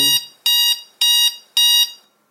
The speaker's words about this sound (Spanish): Lo puedes configurar como ascendente. alarma, tipo alarma como vimos, digital,